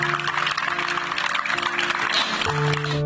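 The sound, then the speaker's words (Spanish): Sustained applause from a sizeable crowd of hospital staff at Hospital General Dr. Norberto Treviño Zapata, giving a last farewell to colleagues with white balloons; a dense, steady clatter of clapping holds at an even level throughout, with a faint droning tone running underneath. “Este miércoles, con globos blancos y aplausos, personal del hospital dio el último adiós a sus compañeros.”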